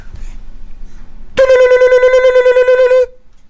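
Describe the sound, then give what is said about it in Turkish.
A single steady, buzzy electronic tone from the keypad of a judge's mobile phone sounds for about a second and a half, loud, with a faint flutter, then cuts off into quiet. “Alayım şu hakimin cep telefonuyla oynayayım biraz.”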